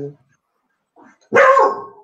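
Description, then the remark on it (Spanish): A single loud dog bark bursts out near the end, preceded by a short faint yelp-like sound and a brief snippet of voice at the start. “ve, ve, hasta tu perro se emocionó, güey.”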